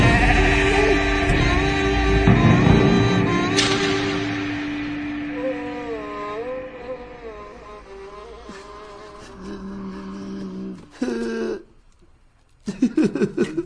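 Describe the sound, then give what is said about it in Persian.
Sheep bleat in a series of wavering, drawn-out cries, some overlapping, over a steady buzzing drone, with a couple of sharper, closer bleats near the end. “گوسفند گوسفند گوسفند”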